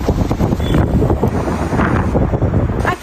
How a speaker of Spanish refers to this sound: en el centro de San José el viento es bastante fuerte. Se logran ver varias ramas y árboles caídos, también rótulos dañados. Y es ese mismo fuerte viento el cual puede ocasionar apagón.